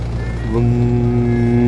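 A steady, low engine drone with layered harmonic hum swells slightly after a moment and then holds, loud and continuous, as an airplane approaches.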